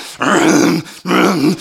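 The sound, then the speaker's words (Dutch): A voice imitates black metal singing with two loud, harsh growled bursts, each lasting about half a second with a short pause between. “Oh, black metal.”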